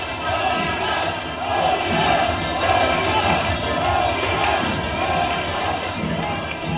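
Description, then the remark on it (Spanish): A large crowd of Club Bolívar football fans chants "Bolívar" in unison as the team enters, a steady rhythmic roar of voices repeating in regular pulses, loud and continuous throughout. “Es justamente, es justamente el grito de esta afición con el recibimiento en este, en este escenario.”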